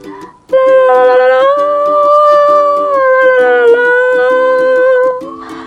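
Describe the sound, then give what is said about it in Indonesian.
A bright, cheerful music box tune plays without voices: a sustained, high melody line rides over a bouncy, repeating pattern of lower notes and light ticking accents, steady and fairly loud for about five seconds. “suka mainan kotak musik. Bunyi musik riang segera terdengar.”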